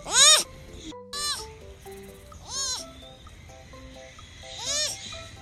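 A baby sloth gives four high, squeaky, bleat-like cries, each a short rising-and-falling whistle, spaced unevenly a second or two apart over soft, steady background tones.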